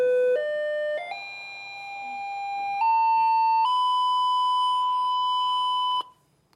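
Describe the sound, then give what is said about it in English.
A loud, steady electronic test tone climbs in pitch through several distinct steps, holds on its highest note for a couple of seconds, then cuts off abruptly. No one speaks. “One thousand cycles a second. Can you see what's happening here? as it goes faster, the pitch changes.”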